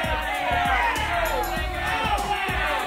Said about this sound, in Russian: Площадь, а вокруг тысячи людей в древней странной одежде. Они кричат, размахивают руками.